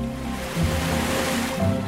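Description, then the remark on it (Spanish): Ocean waves wash steadily onto a shore in a broad, hissing roar, with two gentle swells as surges break, and a faint tonal hum beneath the surf. “Mi primera idea del movimiento y de la danza me ha venido del ritmo de las olas.”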